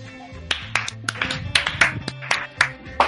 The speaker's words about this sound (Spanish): Un aplauso, por favor.